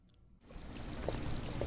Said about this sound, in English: F&B is in the heart of downtown Scottsdale, in the charming Craftsman Court, surrounded by boutique shops. Outside, there's a bubbling fountain, and the low metal gate by the restaurant's front door is covered in planters sprouting herbs.